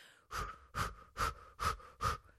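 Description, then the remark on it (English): Five quick, forceful bursts of breath pushed out in a steady rhythm as an energizing breathing exercise, fairly loud, with no talking. “If you're maybe wanting to pump yourself up, you could try doing the boxer, doing the little pose, but it's the breathing and kind of those short bursts of breathing.”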